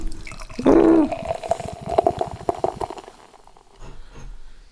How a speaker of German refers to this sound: So, mal gleich schön einschenken.